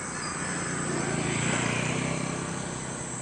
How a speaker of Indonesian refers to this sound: kayaknya udah siang nih oh, gila banyak banyak motor lah